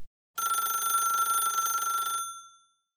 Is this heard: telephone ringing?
yes